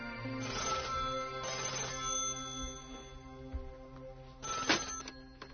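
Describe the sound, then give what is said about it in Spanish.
A telephone rings in a home on a cold February morning, in two bursts with a pause between them, a bright, buzzy tone standing alone with no voices. “Alguien llama por teléfono.”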